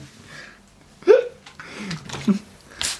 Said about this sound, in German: hat so ein Wassersprühgerät